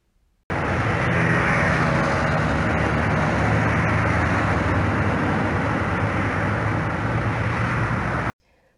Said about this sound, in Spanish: ¿Dónde te imaginas que estamos al escuchar estos sonidos con sus distintos timbres? Excelente, este paisaje sonoro es una carretera.